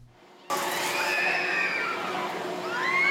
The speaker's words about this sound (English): The weather was balmy on Sunday. At 9 a.m., crowds flocked in the Taipei Children's Amusement Park. Children played happily, notwithstanding the harsh Indian summer sun.